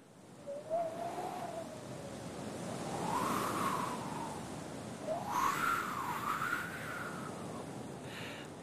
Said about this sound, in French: Elle entend le bruit du vent qui tourbillonne dans les branches d'arbres.